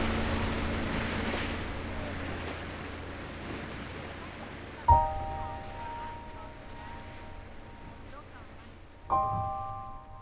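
A small boat tossed by waves and wind as a man brings it ashore, with a steady wash of waves and wind over a low droning hum, then two sharp knocks that ring out briefly, a few seconds apart.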